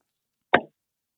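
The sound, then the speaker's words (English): A single sharp pop and short fizzy hiss of a cold beer can being cracked open, fairly loud, over in a fraction of a second with silence around it. “So first up, let me crack a cold one too.”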